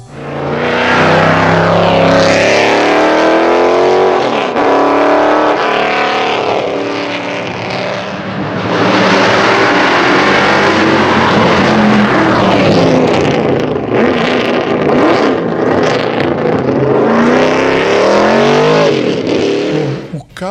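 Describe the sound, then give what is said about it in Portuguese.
The V8 engine of a Bizzarrini 5300, a period Chevrolet Small Block 327 Corvette engine, roars for about twenty seconds, its deep growl repeatedly revving up and easing back, with pitch sweeping higher and lower as the throttle rises and falls. “É um Bizzarrini, um Bizzarrini 5300.”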